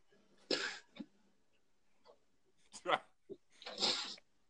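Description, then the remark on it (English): A man sneezes sharply, followed by a few quieter breathy catches and then a second forceful sneeze, with no talking. “Bless you, sir.”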